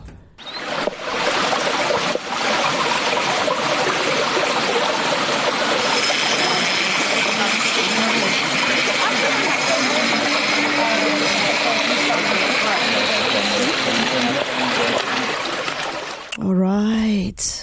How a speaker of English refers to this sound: I just hear bees and water, and that's all I'm hearing, okay?